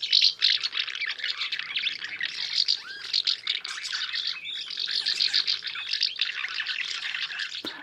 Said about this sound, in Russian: Голоса городской ласточки и береговушки, они довольно похожи. Это такой треск. Но немножко тоже разные. Если внимательно вслушаться, вот, допустим, городская, послушайте. Послушайте.